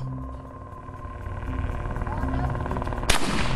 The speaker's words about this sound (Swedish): När den unga pojken på filmen skjuter ett skott så kan man se något röra sig uppe till höger på filmen Låt oss titta.